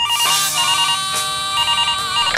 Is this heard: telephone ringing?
yes